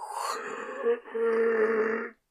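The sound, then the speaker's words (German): A voice imitates a loud, eerie moan heard from a door in ruins at a dead end while paddling: two drawn-out, low groaning tones, the second longer and steadier, sustained before cutting off. “Und dann hört man einfach nur so ein ganz lautes Stöhnen und so ein, so ein”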